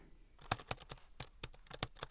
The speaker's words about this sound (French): il y a à peu près un an, je m'assieds à mon bureau et au bout de mes doigts, sur le clavier, je tape ces quelques mots.